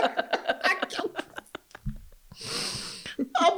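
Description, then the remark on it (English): Bursts of rapid laughter break into a raspy, wheezing cough fit midway, then give way to a few more breathy chuckles, all from one person. “It's like I'm coughing up corona.”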